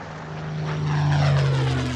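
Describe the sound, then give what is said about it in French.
A propeller plane, call sign Fox X-ray Tango, takes off from runway 14 right. Its engine drones steadily and swells louder, a deep humming tone rising in strength, with no voices present. “Fox X-ray Tango, on pénètre et on s'aligne piste 14, autorisée décollage, ce sera une montée 3000 pieds dans l'axe, puis une directe vers Sierra Whiskey.”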